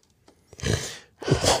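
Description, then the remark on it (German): Two wet, phlegmy coughs in quick succession, fairly loud, with audible mucus rattling in the throat and a short breath between them. “aber hört man den Schleim?”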